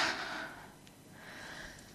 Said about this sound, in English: Yawning and sighing are natural ways in which we communicate to the vagal nerve that it's okay to rest during the day.